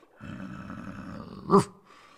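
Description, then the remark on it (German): A wolf growls low and rough for over a second, then breaks into a short, sharp yelping snarl, fairly loud, with no voices. “ist nämlich immer noch ein Wolf nach meinem kleinen Zauber kürzlich.”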